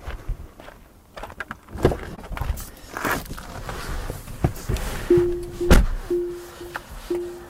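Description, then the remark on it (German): A seatbelt warning chime in an all-wheel-drive electric car sounds near the end, a short steady tone repeating at an even pace, over rustling and thumping as someone settles into the seat before buckling up. Nobody speaks. “Ich schneide mich mal an, damit das Gebimmel aufhört.”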